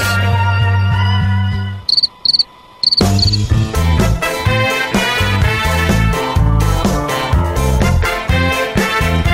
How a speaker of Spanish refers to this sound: Hay un grillo